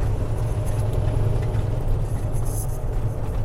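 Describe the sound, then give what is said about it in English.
A heavy semi truck drives steadily down the road, headed to Indiana, its engine producing a deep, constant low rumble with a broad hiss of road noise on top and no breaks throughout. “I am in the semi today. I am headed to Indiana”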